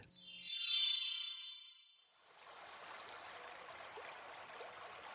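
A bright ringing chime fades out over the first two seconds, then steady water of the Duero River flows in, a continuous rushing babble at moderate level with no voices, at its banks by a town in the province of Valladolid, Spain.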